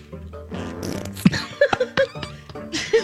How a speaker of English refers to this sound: Come on, fart, fart before you get in the elevator with me